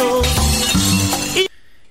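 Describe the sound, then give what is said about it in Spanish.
A loud, bright crash of glass shattering, a sound effect added in a song's production, with a dense burst of tinkling shards over low musical tones, lasting about a second and a half before cutting off to near silence. “A la hora que escribes se entiende, pero ya el que hace la producción le metió un vidrio.”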